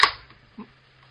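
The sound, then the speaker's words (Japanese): A beer can is opened with a sharp, bright pop and a quick fizzing hiss that fades fast, followed by a soft muffled knock a moment later. The beer is then poured into a beer mug chilled in the refrigerator. “開け、パシュッと開けて、ビールをドバドバっと注ぎます。”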